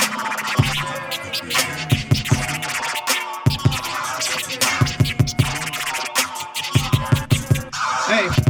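DJ turntable scratching, with quick back-and-forth record scrapes cutting in rhythmic bursts over a pounding low beat, loud and busy for the whole stretch with no voices.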